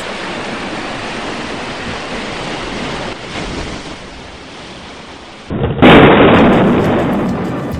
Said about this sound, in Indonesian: Namun karena angin dan gelombang begitu besar, perahu yang digunakan terbalik. Tubuh Baitusen dan Mailama dimainkan ombak yang mengganas.